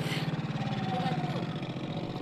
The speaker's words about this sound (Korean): 일감을 실어 나르는 오토바이 소리가 분주한 서울 창신동의 봉제 골목.